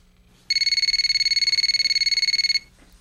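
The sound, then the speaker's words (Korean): A telephone rings in one continuous burst of about two seconds, a loud, high-pitched electronic trill with a rapid fluttering warble, then stops. No one speaks. “그리고 며칠 뒤 그녀에게서 전화가 왔습니다.”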